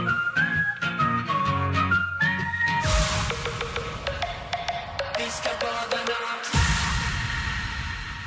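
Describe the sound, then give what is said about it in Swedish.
A Swedish pop song plays loudly on the radio as a listener's request, opening with a bright whistle-like lead melody over a steady beat, then kicking into a fuller, punchier section with heavy drums. No one talks over it. “Då är det alltså Hugo som, som önskar låten idag”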